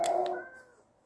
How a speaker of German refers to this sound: Mein Gott, diese Geräusche, die die machen. Moment. War das gerade ein Zombie?